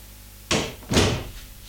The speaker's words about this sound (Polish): Drzwi otwieram, zamykam. Dobra, może jeszcze raz otworzę i teraz zamknę.